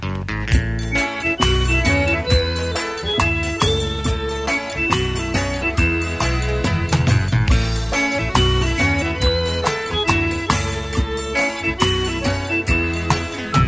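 Steady, full-bodied instrumental music plays throughout with bright plucked and tinkling tones over a rhythmic low accompaniment, loud and continuous with no voices, like a song's opening bars.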